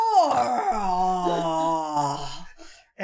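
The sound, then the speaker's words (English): A man's voice does a long, wavering, wail-like Godzilla roar imitation, holding a strained, harmonic cry for about three seconds before breaking off, then a short sharp vocal burst at the end. “Imagine, imagine like Mifune as Godzilla. Just not even in costume. Just paint him green. Just roar.”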